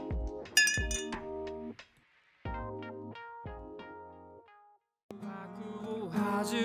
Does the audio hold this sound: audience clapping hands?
no